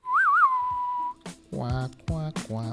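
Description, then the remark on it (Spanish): A lone voice hums the theme of the Clint Eastwood film The Good, the Bad and the Ugly, opening with a high, warbling, whistle-like note that slides and holds, then three short, low, nasal vocal bursts, fairly loud. “Lo más probable es que hayas escuchado una de las melodías más famosas de la historia del cine, que es la de la película de Clint Eastwood, El bueno, el malo y el feo, que aunque no va a sonar muy bonito, la voy a tararear un poco”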